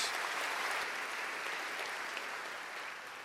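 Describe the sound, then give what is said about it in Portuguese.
A church audience applauds loudly for Jesus at a night service, a dense, steady wash of many hands clapping that holds strong throughout and eases off only slightly toward the end, with no voices standing out. “Dê um aplauso bem forte a Jesus nessa noite.”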